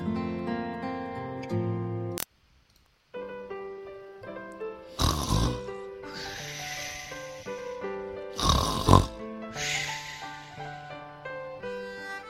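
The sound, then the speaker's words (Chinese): Two loud, rasping snores of Uncle Bear sleeping in, from a children's story, rise over a gentle, steady music bed, spaced a few seconds apart. No one speaks. “熊叔叔在睡懒觉。”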